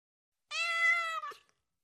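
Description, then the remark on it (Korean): A single clear meow from a small cat named Somang, lasting about a second, fairly loud, with a slight rising-falling tone and a short trailing end. No one speaks. “우리 집에는 작은 고양이에게 내어줄 여분의 공간이 있었으니까.”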